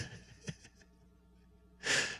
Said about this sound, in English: Does he realize he's breathing into the phone?